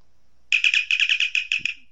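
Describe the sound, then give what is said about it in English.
A bright, warbling electronic chirp, a sci-fi communicator sound effect, plays alone as a cue that someone has pertinent information to share. It is a rapid run of high trilling pulses lasting about a second and a half, and it is clear. “he will let us know by chiming in with the communicator sound”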